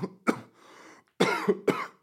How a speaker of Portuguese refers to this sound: Pá, estava a evitar que isto começasse. Esta tosse.